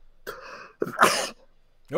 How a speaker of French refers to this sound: à tes souhaits.